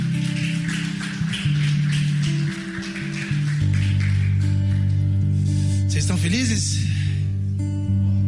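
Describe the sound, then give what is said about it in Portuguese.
An audience applauds with steady, dense clapping for several seconds, while sustained keyboard chords hold underneath and a brief rising vocal cry breaks through near the end. “Aplauda Jesus onde você estiver.”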